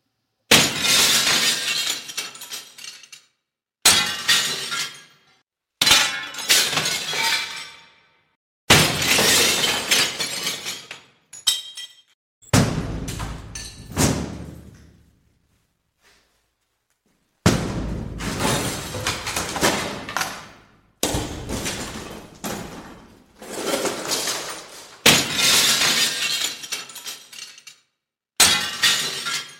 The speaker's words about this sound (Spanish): sé si hacía falta romper también la otra ventana, que solamente era para coger la manilla por dentro y abrir la puerta. Igual nos hemos pasado, ¿no?